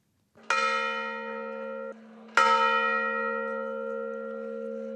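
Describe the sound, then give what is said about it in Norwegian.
Church bells in the Ukrainian town of Viv toll for the funeral of a 40-year-old father of two, a demonstrator killed in Kiev the week before: two strong, resonant strikes with long ringing overtones, the second arriving about two seconds after the first while a low steady hum sustains beneath both. “Klokkene ringer for en av demonstrantene som ble drept i Kiev i forrige uke.”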